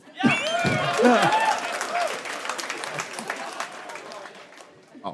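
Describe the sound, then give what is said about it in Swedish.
An audience bursts into applause, dense clapping mixed with cheers and whoops, loudest in the first seconds and then settling into steady clapping. “Applådera alla som inte har föräldrar som är syskon.”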